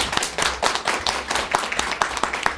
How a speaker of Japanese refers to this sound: じゃあ皆さんちょっともう一度大きな拍手をありがとうございました。